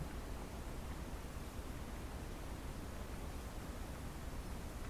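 Soft, steady rustling ambience of a bamboo forest, like wind moving through leaves in a continuous even wash with no distinct events and no voices.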